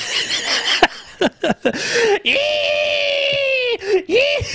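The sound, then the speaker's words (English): A person imitates a pig's squeal, loud: a few short, choppy squeals, then a long, strained, high-pitched squeal held for over a second, ending in a final shorter squeal. “Squeal like a pig.”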